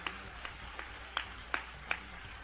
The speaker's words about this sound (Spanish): Un camino que comenzamos a recorrer con nuestro querido amigo Ronaldo, a quien es justo recordar en este momento, para quien pido un aplauso y cuyo entusiasmo y confianza nos siguen animando.